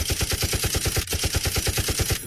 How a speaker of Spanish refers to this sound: ¿Por qué tanta balacera?